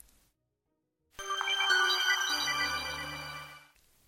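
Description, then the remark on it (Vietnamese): A phone's message notification tone sounds out of silence, a bright melodic electronic tone lasting a couple of seconds before cutting off. It is clear, with no talking. “Trung báo có tin nhắn liên tục reo khiến cô phải nhắn thật nhanh.”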